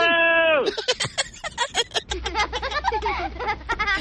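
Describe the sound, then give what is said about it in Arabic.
A person lets out a short, drawn-out vocal tone meant to imitate a lion's roar, sounding thin and bleat-like, then quick, choppy chatter and chuckling follow. “اثبت لي انك متحمس عطني صوت الاسد بسرعه بسرعه آه، ما ما اعرف حاول حاول بسرعه روح لا تفشل”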